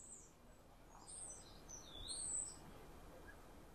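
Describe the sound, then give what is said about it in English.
Birds chirp and whistle in quick, varied bursts, the high calls tumbling over one another, some songs like a penny whistle. Soft outdoor background noise runs underneath, with no voices. “And they're doing lots of chatting and garbling and this fun whistle. they have a really astonishing vocal range.”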